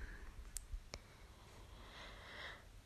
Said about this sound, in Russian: сегодня послушайте, как я тыкаюсь в телефоне